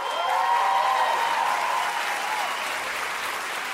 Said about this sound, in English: Everyone got up and started clapping.